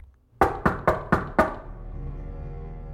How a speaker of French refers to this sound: Lila continue d'avancer, avec le corbeau sur sa tête, jusqu'à se trouver devant la porte de la maison. Elle frappe.